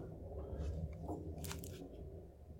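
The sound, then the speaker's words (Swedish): A neighbour rolling something across the floor: a steady, faint low rumble lasting a couple of seconds, dotted with a few brief crunchy clicks. No one speaks. “Nej, det är någon granne som rullar någonting över golvet här.”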